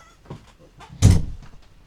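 A door screeches as it's pulled open, one loud, harsh scraping burst about midway, preceded by a few soft rattles and knocks, with no talking.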